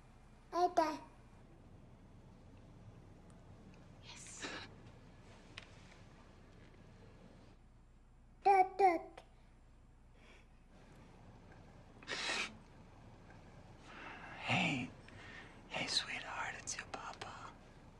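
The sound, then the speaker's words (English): A baby girl babbles softly over the phone in short, scattered bursts, little cooing sounds and breathy whispery noises separated by quiet pauses, faint. “Listen to her talk.”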